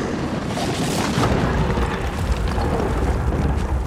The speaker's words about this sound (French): Et d'un éclair fracassant, il frappa la montagne en détachant tout un pan. Un pan étroit et vertical, vertigineux, autour duquel des blocs de rochers s'effondrèrent dans un vacarme monumental.